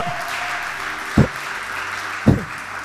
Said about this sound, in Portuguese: Eu, se fosse você, aplaudia a Deus por isso.